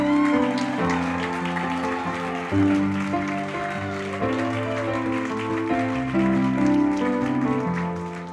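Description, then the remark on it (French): Audience applause at a church worship service for the drummer and his wife, who plays guitar, a dense steady patter of many hands clapping that continues throughout, mixed with sustained guitar and keyboard chords playing underneath. “Oui, on les applaudit.”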